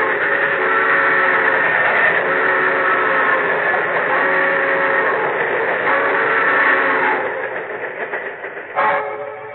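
A train roars, loud and continuous, its horn blaring in steady sustained tones over the rumble as a car tries to cross the tracks ahead of it, before the noise drops slightly near the end with a brief final burst.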